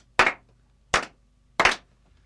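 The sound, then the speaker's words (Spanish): A subdued round of applause for pianist Arthur Lubinstein as he arrives with his two secretaries: just three slow, evenly spaced sharp claps with brief silences between them, and no voices. “Eh, otro aplauso morigerado y poco enfático eh, si sus palmas aún mantienen la inclinación amable.”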